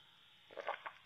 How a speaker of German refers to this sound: Ich trinke gerade mal einen Schluck Kaffee. Das wird auch nicht rausgeschnitten, by the way.